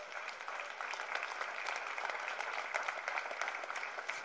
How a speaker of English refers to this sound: Let me get a clap.